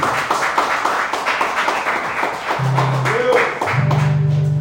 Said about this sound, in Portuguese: Se é para Jesus, é aplaude direito.